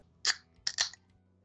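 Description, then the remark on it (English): A sharp metallic crack followed by a quick hiss and a second pop, like a cold beer can being cracked open, with no one talking. “Hey, I hear you're cracking open a cold one like we'd like to do here.”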